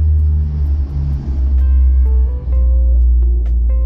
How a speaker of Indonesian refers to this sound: cuy pesawat tiba cuy cuy nggak tadi deket banget cuy tapi uh, by the way emang rumahku ini deket sama Juanda ya ya nggak deket-deket banget sih